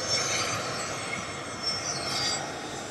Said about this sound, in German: Warten wir mal eben kurz noch mal das Flugzeug ab. Es ist ein Abrojet, der hier gerade vorbeifliegt von der Fluggesellschaft BRA, BRA. Und ich bin hier in Schweden, Hauptstadt Stockholm. Und da ist das der kleinere Flughafen Bromma.